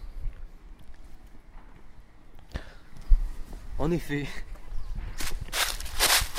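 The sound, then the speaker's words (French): Footsteps crunch through dry leaves, a few uneven rustling steps growing louder toward the end, with a man briefly speaking in the middle. “Les feuilles sont croustillantes.”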